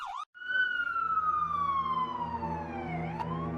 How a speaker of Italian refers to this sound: Mentre mi avvicinavo all'isolato di casa, però, iniziai a sentire numerose sirene, accompagnate dalle luci blu intermittenti di polizia e ambulanze.